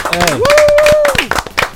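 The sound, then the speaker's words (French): Quick, steady hand clapping in applause for the rapper's career, a dozen or so sharp claps in under two seconds, with a loud sustained whooping voice rising and falling over the claps. “Franchement, moi, franchement, il faut applaudir encore … parce que sa carrière, c'est un truc de fou.”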